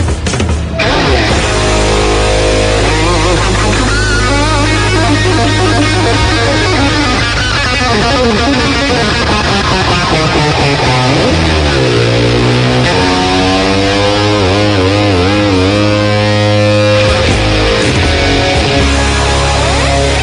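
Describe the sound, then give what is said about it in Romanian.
A violin plays a fast, virtuosic take on a famous rock electric guitar solo, with rapid runs, swooping slides and bends over a steady low droning accompaniment, loud throughout with no talking. “De data asta am găsit o interpretare la vioară a unuia dintre cele mai mari solouri de chitară electrică din istoria rockului.”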